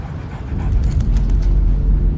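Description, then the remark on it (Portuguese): A hungry dog pants steadily in short breathy puffs over a constant low rumble, with a few faint whimpering sounds mixed in. No one speaks. “Aquele cachorro. Qual é a história dele?”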